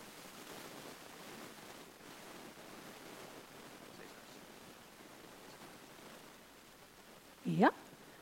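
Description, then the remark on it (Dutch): Steady, even static hiss on a phone line fills the whole stretch like a noisy microphone, with no talking, and ends with a brief rising squeal just before the close. “Is de ruis over?”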